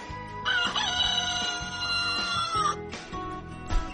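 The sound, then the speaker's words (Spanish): A rooster crows once as an alarm clock, a loud, strained cock-a-doodle-doo that rises, holds for about two seconds and drops off, over a low, steady background with a few thumps. “despertador, que comença la funció.”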